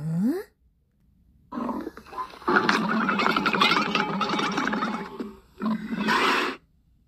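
A camel grumbles loudly, a long gurgling, rumbling groan lasting several seconds, followed after a brief pause by a shorter, harsher burst. No voices are heard.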